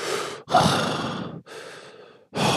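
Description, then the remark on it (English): Loud gasping breaths into a microphone, a series of harsh, airy inhales and exhales in quick succession with brief pauses between them, no talking. “So you're welcome for that terrifying breathing sound.”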